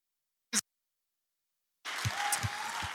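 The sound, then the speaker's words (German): A single brief clap-like snap, a pause of about a second, then an audience breaks into sustained applause for Jesus, a dense crackling wash of many hands with a few low thumps mixed in. “Komm, wir geben Jesus, unserem Herrn, nochmal einen Applaus, oder?”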